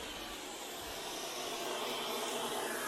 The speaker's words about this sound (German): Also das ist natürlich normal, dass jetzt, wenn der Sender aus ist, ist nichts mehr, was wir empfangen können. Und dann haben wir überall das Rauschen im Walde, das ist normal.